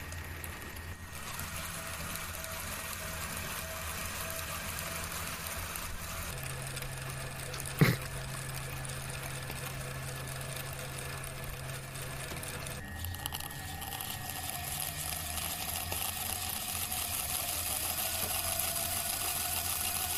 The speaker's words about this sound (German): Der Waschmaschine.